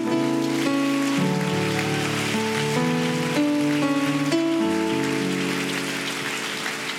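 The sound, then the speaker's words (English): An audience applauds steadily, a dense crackling wash of clapping, while sustained organ chords shift slowly underneath. No one speaks. “Can you give them a hand clap of appreciation?”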